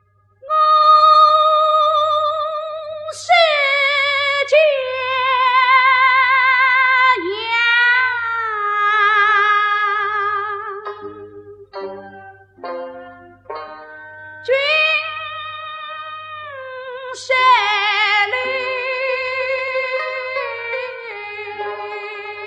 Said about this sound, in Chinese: 你现在听到的这首评弹，就是根据毛主席的诗词《蝶恋花》打李淑一改编的。